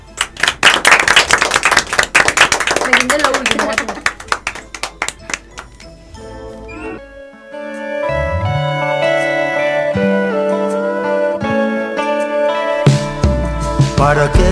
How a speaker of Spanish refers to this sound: Bueno, gracias por haber estado. ¿Un aplauso?